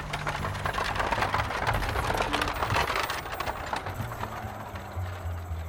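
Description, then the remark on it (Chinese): Hooves clip-clop steadily as a horse-drawn cart loaded with fish rolls along, a dense run of sharp, clattering knocks over a low rumble of wheels, with no voices. “哇，前面的大车上装满了鱼啊！”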